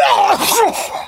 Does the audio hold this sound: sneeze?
yes